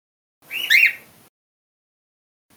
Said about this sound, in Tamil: sorry என்னோட கிளி வந்து டிஸ்டர்ப் பண்ணிவிட்டு பரவாயில்ல பத்து எபிசோடு டிஸ்டர்ப் பண்ணால் பண்ணிட்டாங்க இந்த ஒரு எபிசோட் அவங்க டிஸ்டர்போடு இருக்கட்டும் நல்லா தான் இருக்கும்